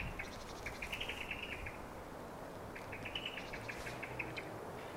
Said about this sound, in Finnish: Siinä on musta rastas näköjään. Musta rastas se on tuossa. Niin. Rummon takana tuossa. Kovasti on juttu.